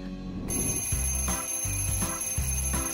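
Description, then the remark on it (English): An alarm clock rings in repeated electronic bursts, four pulses in a steady rhythm after a brief quiet start, loud with no voices. “That's probably what you think when you hit the snooze button on your alarm and decide to spend a bit more time in bed.”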